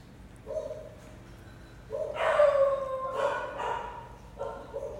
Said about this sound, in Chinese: 这狗狗对停车场在在吠，大家忍耐一下。